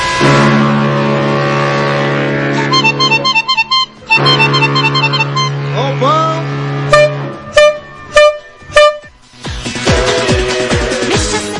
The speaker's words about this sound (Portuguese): Toma a buzina.